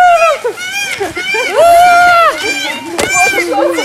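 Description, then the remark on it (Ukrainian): Loud, nasal peacock calls ring out in Ecuador, several wailing cries overlapping in quick succession, one long drawn-out call in the middle, with a brief sharp crack near the end. “Це звуки павлінів. Павлін вітає.”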